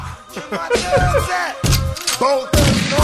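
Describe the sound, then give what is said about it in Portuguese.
Rifle gunfire rings out at a shooting range in three loud, sharp bursts spaced roughly a second apart, with people talking in between and over the shots. “Aí no outro dia a gente foi no stand de tiro e dá tiro.”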